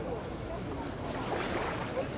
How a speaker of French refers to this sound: Sur l'eau calme, les bateaux flottent tout doucement, comme endormis par le bercement des vagues.